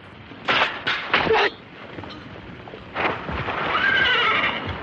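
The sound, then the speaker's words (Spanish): A horse neighs loudly in a long, shrill whinny that wavers in pitch, after a few short, heavy bursts of noise that could be stamping hooves, as a group of mounted bandits halts in front of a stockade and one bandit gets down from his horse. “Un grupo de jinetes se detiene frente a ellos. Un bandido baja de su montura para medir la profundidad de la zanja empantanada.”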